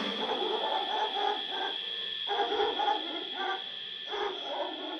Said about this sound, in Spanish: A lo lejos, un perro.